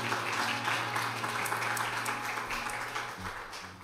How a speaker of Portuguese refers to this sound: Fica de pé e aplauda o Senhor nessa noite. Aleluia.